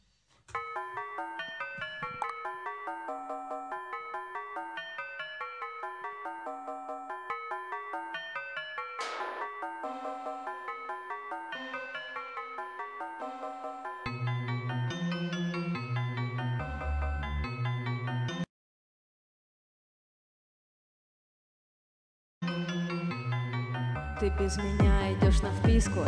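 A song intro plays: a bright, plinking synth melody repeats steadily, then a deep bass line joins in, the music cuts to silence for a few seconds and returns fuller.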